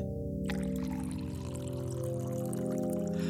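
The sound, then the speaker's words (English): Hot water pours steadily into a coffee mug onto instant coffee grounds at the bottom, a continuous splashing stream with a ringing tone that fills out as the mug fills, starting abruptly and running without pause. “As the hot water mixed with the hastily scooped instant coffee grounds at the bottom of the mug, their powers combined to create a cup of much needed caffeine”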